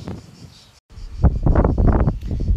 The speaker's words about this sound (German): So, und jetzt mache ich mal Pause denn jetzt gibt der Wind gerade mal wieder so richtig Gas und jetzt zeige ich euch mal, wie das ohne Mikrofon geht.